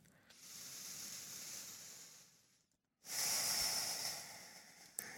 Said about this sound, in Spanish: Y una última, inhalo profundo por la nariz. Retén, retén, retén. Exhala despacio.